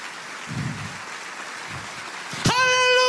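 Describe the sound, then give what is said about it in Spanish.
An audience claps steadily, a dense crackling wash of applause filling the room, until a sustained, loud musical tone swells in near the end over the clapping. “Alguien tiene que aplaudir más que eso si quieres ver la gloria de Dios.”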